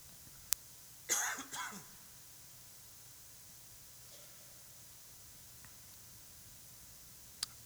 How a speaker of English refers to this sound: Excuse me, I'm going to cough.